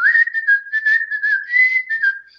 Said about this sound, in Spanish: Juntá los labios y empezar a silbar.